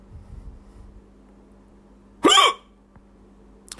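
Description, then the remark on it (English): A single sharp hiccup, short and fairly loud, pops out near the middle against a faint hum, with a tiny click shortly after; a hiccup after eating a mouthful of a dish with chopped red jalapeño peppers. “There's something wonderful about that sound. something so involuntary about it, something so you know, it's sort of the polite vomit.”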